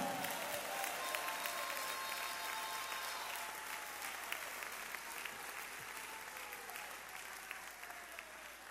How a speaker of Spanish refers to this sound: El que tiene ese Dios bueno y lo ha gustado, déle el mejor aplauso ahora, ahora.